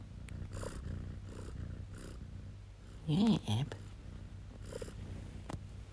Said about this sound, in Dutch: Kijk, mijn kat is hier lekker aan het spinnen. Hoor je dat?